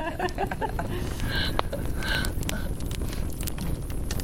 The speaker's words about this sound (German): Wer noch Lust hat, lässt den Abend am Lagerfeuer ausklingen.